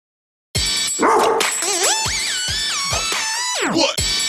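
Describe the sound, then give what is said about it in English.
A copyright-free sampled dog bark found online is played back at shifting pitches like a melody, with sliding, warbling tones over a steady thumping beat. It is loud, with no one talking. “The dog one is pretty fun too. Here, I'll show you the dog one.”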